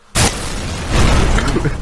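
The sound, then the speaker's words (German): Someone imitates a sleeping person's snore with a loud, rasping burst that starts abruptly, holds steady, then swells into a second rougher surge. “So, weißt, so tönt es, wenn man schläft.”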